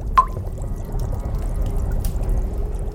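A single bright drop of blood from a finger plinks into a small glass vial near the start, ringing briefly, followed by a steady low watery rumble with no voices.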